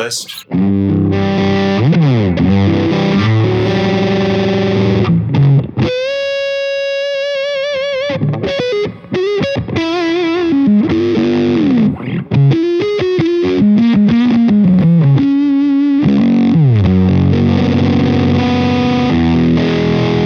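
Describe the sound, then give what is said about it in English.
An electric guitar through a soft, low-gain fuzz pedal called Pillow plays sustained notes, bends and quick runs, the tone rounded, cushy and without much definition rather than sharp, at a steady, fairly loud level with no talking. “Like I said, when I run a fuzz, I like it to be really pillowy.”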